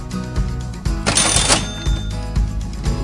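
A cash register sound effect: a quick run of mechanical key clacks, then a loud, bright ring about a second in, followed by more clattering of the drawer and keys.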